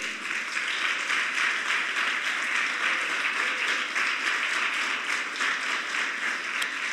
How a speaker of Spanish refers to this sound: Dele un aplauso al cielo.